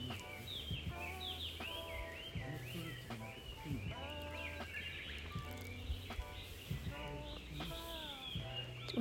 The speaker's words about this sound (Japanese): 私は今、えー、宴海山周辺の市民の森というところに来ております鳥の声風の音聞こえますかね